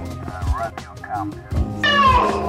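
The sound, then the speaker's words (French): A person imitates a cat, making short mewing vocal sounds before a louder, drawn-out, high-pitched meow that bends in pitch at the end. “Oh putain, tu fais super bien le chat.”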